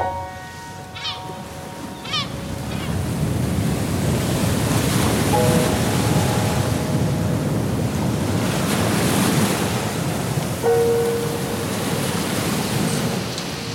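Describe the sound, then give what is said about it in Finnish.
Gentle Baltic Sea waves wash steadily against the shore with wind buffeting the microphone, a continuous soft roar of surf, and a few faint birdlike chirps and tonal squeaks early on. “Joo, äh, Baltic meri ei ole ähm, kova ääni. se on pikku pikku ääni.”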